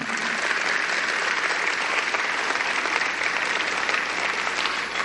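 audience applauding

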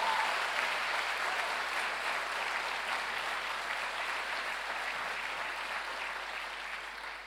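audience applauding

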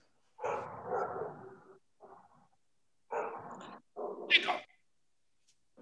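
neighbor's dog barking

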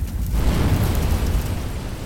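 explosion

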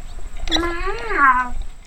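cat vocalizing

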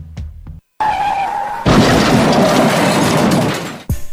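car skidding and crashing

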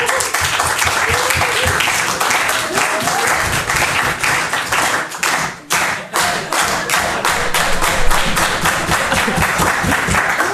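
audience applause

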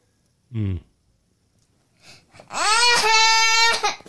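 child screaming

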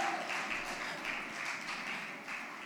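audience applauding

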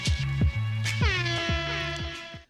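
air horn sound effect

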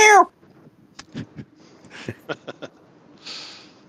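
cat meowing

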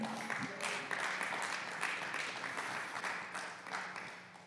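audience applause

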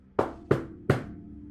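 knocking on a door

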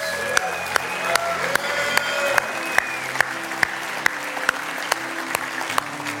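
audience clapping in praise

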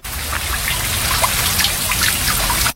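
water running

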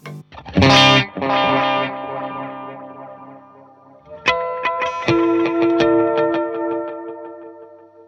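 guitar through delay pedal

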